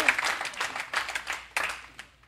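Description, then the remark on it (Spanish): An audience applauding: dense, crackling clapping from many hands with a few louder surges, steady for a couple of seconds before tapering off near the end. “Le hace aplauso porque ya no eres tú, es Dios en ti trabajando para cumplir.”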